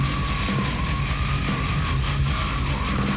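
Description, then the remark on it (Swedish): A loud, dense metal track plays with programmed-sounding drums, the snare hitting at an even, machine-like level under a thick wall of distorted guitars, with no one speaking. “När man programmerar trummor så är det bra att ändra velocity på virveln ibland så att, inte, så att inte alla slag är på 127.”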